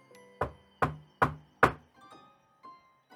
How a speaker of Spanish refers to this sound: Mucho me temo que es el payaso tocando a mi puerta.